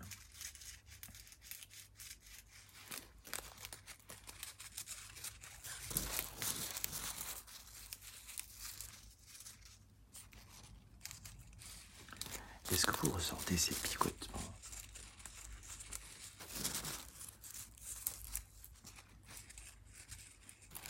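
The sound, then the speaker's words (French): Crisp rustling of summer forest leaves, crinkling in irregular bursts that swell and fade, with soft whispered speech in between. “Est-ce que vous voulez entendre les feuilles de la forêt, la forêt l'été, pas en automne?”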